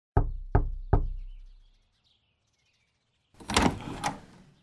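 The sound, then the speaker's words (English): A man who has walked alone to a mansion knocks three loud, evenly spaced times on its large, heavy wooden door, each knock with a booming echo, followed by a pause and then a creaking, scraping sound as the door opens. “George Corwin walks alone to the English mansion and knocks on the large door”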